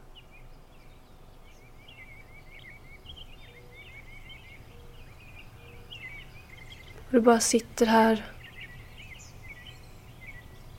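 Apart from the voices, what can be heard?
birds chirping outdoors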